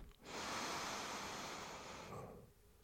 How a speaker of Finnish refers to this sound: Sulkee silmät, hengittää sisään sieraimien kautta.